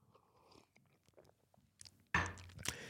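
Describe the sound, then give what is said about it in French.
Someone takes a small sip of water: soft wet mouth clicks and small slurps, then a louder swallow and exhale near the end. No one speaks. “Pourquoi je bois un petit coup d'eau.”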